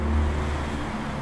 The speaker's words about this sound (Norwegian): Jose kastet oss ut av bilen, smalt igjen døra si og kjørte av gårde i den gamle Opelen sin, som hadde høl i potta.